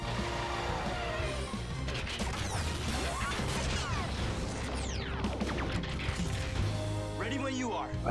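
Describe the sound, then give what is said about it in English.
A robot transformation sound effect like the Transformers transforming: dense mechanical whirring and rapid ratcheting clanks, with sweeping rising and falling tones, running loud and continuous for several seconds amid a busy, crashing mix. “almost swear I heard the Transformers transforming soon.”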